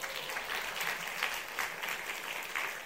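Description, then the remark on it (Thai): An audience applauds together for God in a steady, dense patter of many hands clapping, sustained evenly for a few seconds at moderate volume with no voices standing out. “ขอพระเจ้าปลดปล่อยสุขภาพที่ดีลงมาเอเมนค่ะตอบมือพระเจ้าดีไหมครับ”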